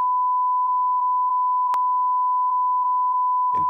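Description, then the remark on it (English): A loud, steady censor bleep tone runs unbroken for several seconds, with a sharp click partway through and a voice just starting to speak as it ends. “We've just wrecked it now, so that's more beeping.”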